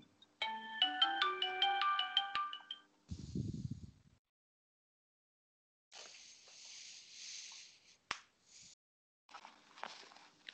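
A phone ringtone plays a quick, bright melodic pattern of stacked electronic tones for a few seconds, followed by rustling, hissing and handling noises nearby.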